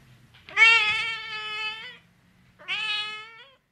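A cat meows twice for Marcel Brotters' Interview with a Cat, recorded at the Musée d'art moderne, Département des Aigles, 12 Burgplatz, Düsseldorf: a long, drawn-out wailing meow of about a second and a half, a pause, then a shorter meow. Both are loud and tonal with no talking.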